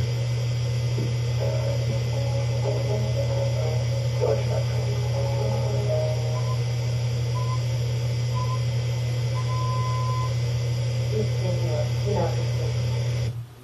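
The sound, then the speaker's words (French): A radio news bulletin's opening jingle, its short, thin tonal notes buried under a loud, steady electrical hum and crackling static, like an old, poorly tuned broadcast. “Voilà, donc vous avez entendu le, début du générique pour le journal euh, radiodiffusé et c'est à ce moment-là que le message apparaît.”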